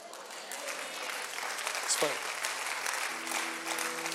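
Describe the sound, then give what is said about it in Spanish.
An audience applauds loudly in praise of God, a dense, steady wash of many hands clapping together, with a few voices and a sustained musical tone rising underneath toward the end. “Vamos, si usted recibe esa palabra del Señor, dele un aplauso fuerte.”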